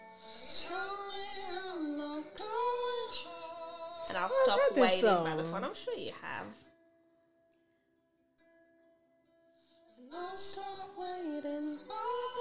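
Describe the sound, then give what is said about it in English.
A song plays, led by a smooth sung vocal with gliding, wavering notes. It drops to a near-silent pause with faint held tones, then the singing returns. “I've heard this song. Is it in a soundtrack somewhere?”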